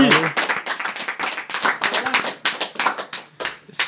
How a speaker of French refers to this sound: Et c'est l'équipe MSNL qui a. Oh. Bravo Ça s'applaudit